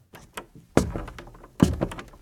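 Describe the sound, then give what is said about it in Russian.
A door opens: a few light latch clicks, then two heavy wooden thunks spaced under a second apart, each ringing briefly. No one speaks. “Дверь открылась без проблем.”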